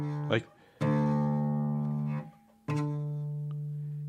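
Two plucks of a low open guitar string, each ringing out clearly with a sustained, gradually fading tone; a short noisy sound comes just before the first pluck.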